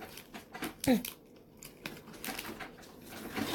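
Crackly tearing of thin cardboard as the day-4 door of a Twinings Advent Tea Calendar 2022, at the bottom of the rightmost column, is ripped open, with a sharp louder rip early on followed by scattered rustling and crinkling.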